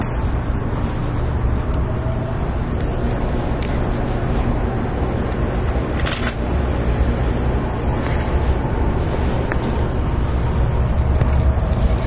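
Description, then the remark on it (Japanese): Steady low hum and rumble inside a JR 811 series electric train on a rapid service from Orio to Kashii, Japan, idling at a station before its 14:35 departure, constant and even throughout, with faint mechanical whine and no one speaking. “JR811系 快速 折尾から香椎まで”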